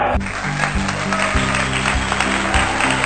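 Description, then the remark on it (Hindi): A large crowd at a cricket match between India and England claps steadily as Pant reaches his half-century. The applause is a dense, continuous wash that stays loud throughout, with a low repeating tonal hum or horn-like notes underneath. “इसी ओवर में पंत ने भी अपना पचासा ठोक कर एक बार फिर से हमें तालियां बजाने का सौभाग्य प्राप्त कराया”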